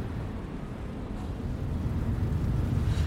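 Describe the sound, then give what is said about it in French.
A bus on route 615 toward Pablo Picasso passes in Seine-Saint-Denis, France: a deep, steady engine drone that grows louder partway through, like a city bus going by on a busy street. No voices. “Là, on croise un bus 615 euh, qui va, je vois, Pablo Picasso.”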